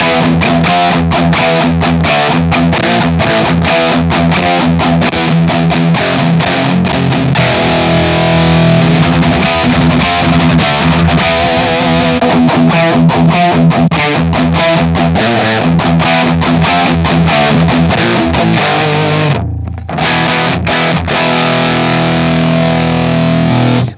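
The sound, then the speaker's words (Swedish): Loud, heavily distorted music plays throughout, with a thick, fuzzy, saturated tone and a steady driving rhythm, briefly cutting out near the end before resuming. No one speaks. “är ju kul med dist alltså.”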